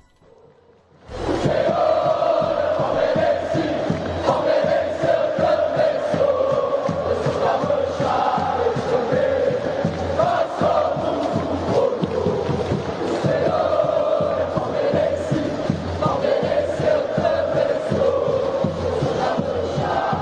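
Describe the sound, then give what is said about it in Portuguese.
A large crowd of Palmeiras football fans sings the terrace chant "O Senhor é Palmeirense" in unison, a loud, sustained wall of voices with a steady melodic rhythm and bursts of emphasis, continuing without pause for the whole clip. “Então vamos ouvir, torcida do Palmeiras cantando O Senhor é Palmeirense, Palmeirense eu também sou.”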